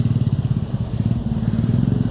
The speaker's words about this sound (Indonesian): ini ada suara-suara mobil nggak sih berisik nggak sih